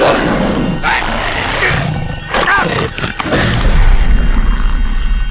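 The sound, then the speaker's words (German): A dog growls and snarls loudly, a rough, continuous rumble lasting several seconds with harsh bursts rising near the end, with no talking over it. “Bravo, Hund. Brav. Bist ja doch so was Nutze, blöder Köter.”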